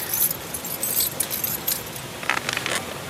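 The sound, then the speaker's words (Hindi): A bunch of bike keys jangles in quick, bright metallic bursts as someone picks them up, rattling irregularly for a few seconds with no one speaking. “एक मिनट पहले मैं मेरी बाइक की चाबी ले लेता हूँ”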